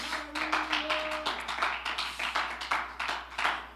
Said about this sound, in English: Let's clap our hands to him.